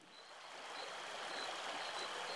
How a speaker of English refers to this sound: This is what it sounds like along the Rio Grande at night in Big Bend National Park, a place so remote jet planes don't even fly over it.